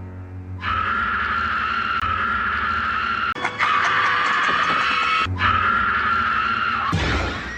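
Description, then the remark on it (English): Actor Mark Patton's loud, drawn-out horror-film scream, held for several seconds in three sustained bursts with brief catches between them, then cut off sharply at the end. “Oh, and his scream. Listen to this.”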